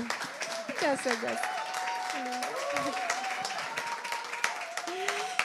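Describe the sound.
A crowd applauds steadily for several seconds, the dense clapping holding an even, loud level throughout, with voices calling and cheering over it.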